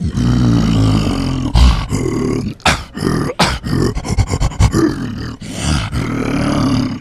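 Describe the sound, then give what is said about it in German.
A human voice imitates an ape's roar: a series of loud, rough, growling bursts with short breathy gaps, forceful, with no other sounds. “Der Affe als solcher würde pur so klingen.”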